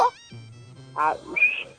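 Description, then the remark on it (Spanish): A person lets out a short, high whistle near the end, following some brief voiced sounds and a murmured tone; the whistle is fairly loud, lasting only a moment. “Oye, a ver, ya desde ahí, güey, sabes que es un pinche ratero, güey. Desde el chiflido, güey.”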